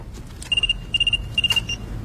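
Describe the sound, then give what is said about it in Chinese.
The telephone of the character Chen (琛哥) rings with three quick bursts of a high electronic trill, each burst a rapid warble of pulses, sounding clearly over a low background hum with no one talking. “随后，琛哥的电话响了起来。”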